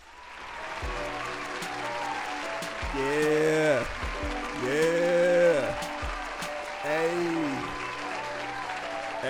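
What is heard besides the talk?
applause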